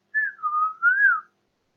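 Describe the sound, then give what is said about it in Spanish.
A person whistles a short birdlike tune, a smooth sliding tone dipping and rising in pitch over about a second, soft and alone without speech, imitating a bird's song. “Por ejemplo, un sonido, un sonido fuerte, la de la ambulancia, wiu, wiu, un sonido suave, el del pájaro.”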